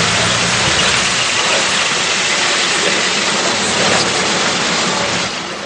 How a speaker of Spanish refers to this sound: Toral observa los coches que están llegando